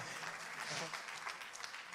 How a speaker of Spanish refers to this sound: Alguien tiene que aplaudir y decir amén a eso.